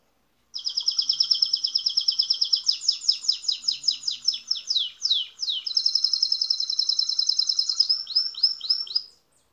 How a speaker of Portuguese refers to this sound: Isso, é o passarinho.